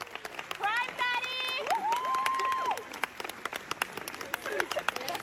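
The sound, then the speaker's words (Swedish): A crowd of fans claps steadily throughout while several voices shout and cheer a song title in drawn-out calls, loud and lively, with scattered yells continuing over the applause toward the end. “Men, men de ropade då …. Vi kan spela det.”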